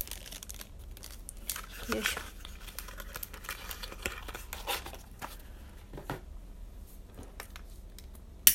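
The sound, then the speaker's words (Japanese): Crinkly rustling of a plastic or paper incense package as incense is taken out of it, with scattered crisp crackles and a sharp click near the end; a person briefly speaks under the handling. “この手元でガサガサ言っているのはお香を出している音ですね”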